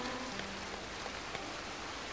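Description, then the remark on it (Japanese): Heavy rain pours down on a forest in a dense, steady hiss, with scattered drops pattering on a surface. No voices. “あまりの激しい雨に私たちは大声で笑った口に雨が入ってきた”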